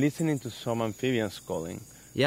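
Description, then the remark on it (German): A handful of frogs call in quick succession, each a short, buzzy, tonal croak with pauses between, while a thin, steady insect-like whine hums faintly in the background. “man hört die Rufe von ein paar Amphibien, aber das ist kein Vergleich zu früher.”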